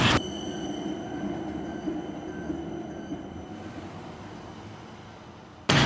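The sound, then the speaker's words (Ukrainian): A tram rumbles steadily past, a low rolling roar with faint metallic whining tones above it, gradually easing as it moves away. No one speaks. “І от їхав трамвай і нагадував: а ти багато не полежиш, сьогодні буденний день.”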